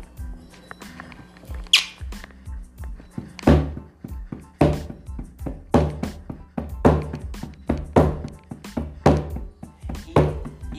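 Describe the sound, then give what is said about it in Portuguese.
An old Lakota hand drum, from the North American Lakota tribe, struck in a steady, even rhythm; cold from being stored, it sounds quiet, producing dull, low thumps roughly twice a second, with a few stronger accented beats and no talking. “tambor tá. lacota, ele vem do, da tribo lacota, né? Norte-americana.”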